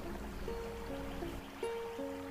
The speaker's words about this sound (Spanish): el arroyo.